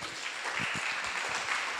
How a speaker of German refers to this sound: Können wir jetzt einen Applaus geben?